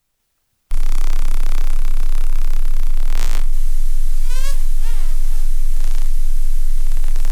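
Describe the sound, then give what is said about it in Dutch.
Harbour porpoise biosonar clicks crackle in a dense, rapid train over steady underwater hiss, with a sharp burst midway and a few faint warbling tones near the end. “Dit is eh, de biosonar van eh, bruinvissen in actie.”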